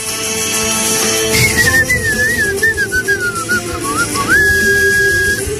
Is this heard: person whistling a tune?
yes